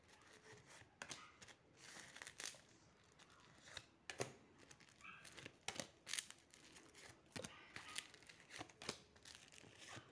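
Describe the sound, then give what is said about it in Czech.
Dry papery sounds of tarot cards being handled and turned over during a card reading: repeated soft card flips, slides and crinkles at an irregular pace, with sharper snaps now and then, no voices. “Tak už to otáčím.”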